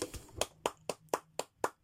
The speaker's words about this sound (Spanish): Así que un aplauso para mis mujeres.